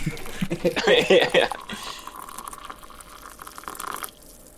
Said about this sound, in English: Open the can of stag.